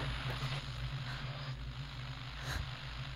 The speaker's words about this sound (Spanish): ¿Dejaste prendida la radio? A algunas personas les ayuda el ruido blanco para la siesta.